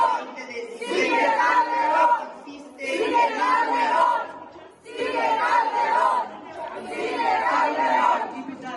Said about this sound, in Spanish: y esto fue aprovechado por los diputados de Morena para empezar a gritar que el que sigue es Calderón, que al que quieren ver en Brooklyn es a Calderón. Calderón!